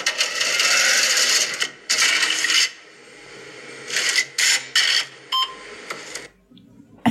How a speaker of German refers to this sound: Ich mag die beiden Piepser. Ja. Und ganz am Anfang diese einrastenden, sehr satten Klänge, dieses Piep. Da stehe ich voll drauf. Was ist das denn? Ein Geldautomat.